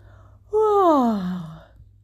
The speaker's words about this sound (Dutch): Ze rekt zich eens goed uit en gaapt.